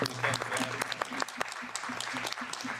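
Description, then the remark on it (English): A steady patter of applause from many hands, dense and continuous for a few seconds, with a low murmur of voices underneath. “abbiamo applaudito nessun intervento.”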